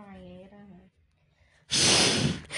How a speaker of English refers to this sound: We could uh make some breathing sound for you.